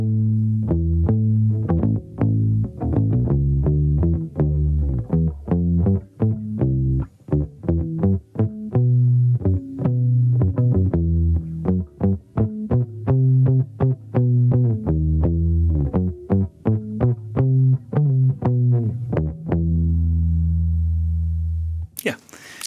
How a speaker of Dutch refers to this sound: gaat … een mooie bas daarvoor verzinnen. En dat klinkt ongeveer zo.